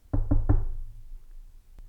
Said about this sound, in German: Jetzt klopfen wir wieder auf Holz.